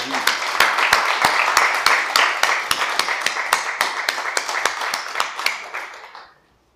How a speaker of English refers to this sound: All right, how about a round of applause for